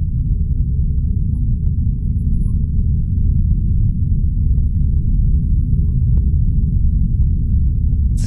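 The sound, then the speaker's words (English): A deep, continuous low rumble of the earth underground, steady and loud throughout, with a few faint scattered ticks above it and no voices. “So I decided to make a recording of the sound of the earth.”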